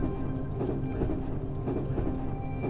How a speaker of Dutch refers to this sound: Goedemiddag is het voor mij vanuit de eh, trein vanuit Lviv, West-Oekraïne naar Kiev. De trein doet er acht uur over